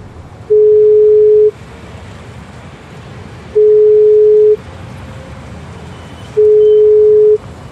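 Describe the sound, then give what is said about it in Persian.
Three steady electronic phone ringback tones, each about a second long, repeat at even intervals until the call cuts off, over continuous low rumbling road noise as the caller drives a car with one hand on the wheel and the phone in the other. “یک دست به فرمون و یک دست به گوشی تک تک زنگ هایی که خورد رو شمرد تا اینکه قطع شد”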